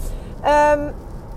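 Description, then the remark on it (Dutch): Steady low rumble of a car interior while driving, a constant road and engine drone, with a brief sustained voiced sound rising over it midway. “Dus ehm, ik neem het op in de auto.”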